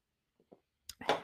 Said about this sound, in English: I need to take a sip of seltzer.